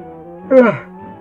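A single short, voiced yawn that swells quickly and slides downward in pitch, fading out within a fraction of a second over a steady low background hum.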